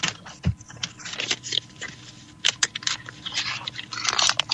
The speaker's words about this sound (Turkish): Bu kağıt telefona yakın olsun. Kağıdı buruşturur musun? Buruştu bir top haline tamam.